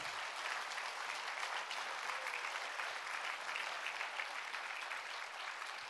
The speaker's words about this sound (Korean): 여러분 우리 청년들에게 여러분 박수와 응원의 격려를 해 주시지 않으시겠습니까? Can you cheer them on, please?